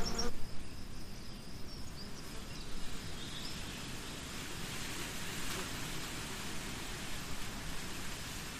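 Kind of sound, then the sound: insect, bees buzzing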